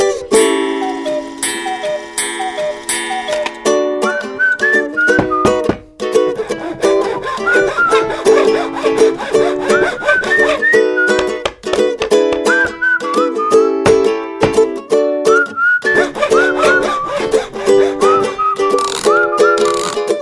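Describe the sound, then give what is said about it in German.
A cuckoo clock rebuilt as a joke into an 'elk clock', with an altered call: bright whistled notes that bend and glide in pitch repeat over steady ticking, loud and continuous for about twenty seconds, with no talking. “Ich erlaube mir mal einen kleinen Jux und baue seine Kuckucksuhr ein wenig um.”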